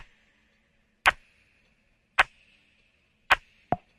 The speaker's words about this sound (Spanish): así como estos mismos sonidos son reutilizados con distintos filtros, por ejemplo este redoblante que en las estrofas se escucha súper filtrado.